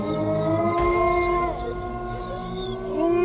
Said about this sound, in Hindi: वो आंखों में डर और पश्चाताप के आंसू लिए हुए उसने वो खड़ग उठाया और उस विशाल काय भेड़िए की छाती में उतार दिया और एक जोरदार चीख पूरी वादी में गूंज उठी